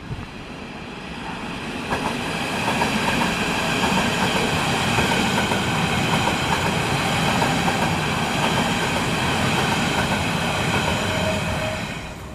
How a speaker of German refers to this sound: Wir gehen jetzt hier äh, über eine Brücke rüber und nehmen das mit der S-Bahn auf.